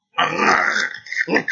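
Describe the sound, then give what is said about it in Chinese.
A family's pet dog at the home's doorway growls and barks at a household member: a rough, throaty growl runs for about a second, then a short sharp bark follows after a brief pause. Both are loud, with no voices. “出门口前呢，他说我们家养了一个狗，平时这个狗啊，都挺正常的，可今儿到门口，这狗啊，一劲儿冲我叫。”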